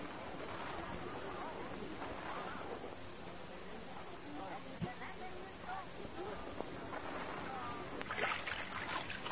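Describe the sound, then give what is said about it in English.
Oars splash steadily through choppy water as a rowboat is pulled along against the undertug, with a constant wash of waves and faint voices mixed in underneath. “don't roll the boat so fast. I can't keep up with you. I'm fighting against the undertug here.”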